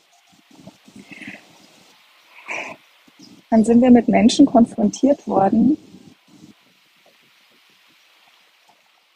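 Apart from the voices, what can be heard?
wind blowing outdoors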